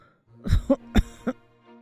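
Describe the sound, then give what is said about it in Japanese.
A short fit of coughing: four rough, throaty coughs in an uneven burst, the second and third strongest, with no speech around them, from a person coughing while handing back a book. “私は咳き込みながら本を返した。”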